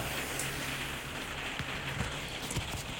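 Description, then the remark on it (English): Steady rain patters and ticks on a surface, a dense hiss broken by scattered sharper drops, with a faint low hum underneath and no voices. “I'm just moving rooms as the rain is ticking”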